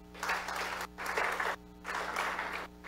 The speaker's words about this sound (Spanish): Amén. Gracias, hermana. Dale un aplauso a mi hermana.